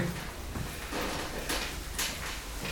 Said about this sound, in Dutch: En het piepen van de deur, het hoort er allemaal bij.